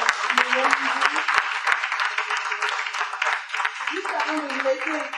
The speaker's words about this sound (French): Merci, merci, merci, merci beaucoup. Vous pouvez applaudir.